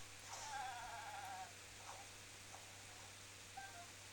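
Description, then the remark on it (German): A goat bleats once in a drawn-out, quavering cry as it charges toward someone, followed a few seconds later by a brief short bleat, both fairly faint over a steady low hum with no talking. “Ich habe also eine Ziege, die ist auf mich zugerannt und ich habe poniert.”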